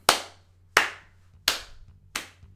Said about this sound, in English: As you exit the door, you hear clapping.